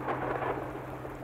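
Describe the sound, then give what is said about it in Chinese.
Steady rain hisses throughout, with a faint, low rumble of distant thunder underneath. There are no voices, and the sound stays fairly even for its short length. “远处隐约的雷声，是我欲诉不能的心。”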